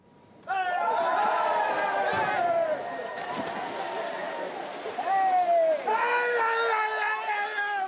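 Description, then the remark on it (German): A large crowd erupts in loud cheering and shouting as people of Memmingen jump into their town stream on Fischertag to catch trout, sustained excited whoops and yells rising and falling, then swelling again near the end, with scuffling movement beneath. “So klingt es seit Jahrhunderten, wenn die Memminger am Fischertag in ihren Stadtbach springen, um den Forellen nachzustellen.”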